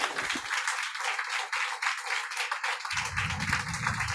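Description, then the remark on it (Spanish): A church audience applauds as an offering to God the Father after a prayer, a steady, dense wash of many hands clapping, sustained for several seconds without pause, with a low rumble of crowd noise joining toward the end. “Dale al Padre la mejor ofrenda de aplausos.”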